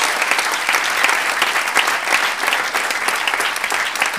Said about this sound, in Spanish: ¡Ah, gloria a Dios! Démosle un aplauso al Señor, gloria a Dios.